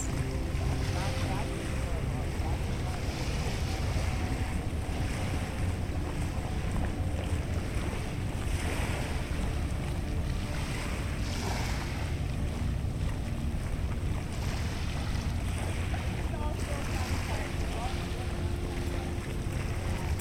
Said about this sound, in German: Stell dir vor, wie du an den felsigen Ufern der üppigen Pazifikküste über das Wasser blickst und unter dir die Wellen gegen die Felsen schlagen. Wir befinden uns im Lighthouse Park in Vancouver, in der Provinz British Columbia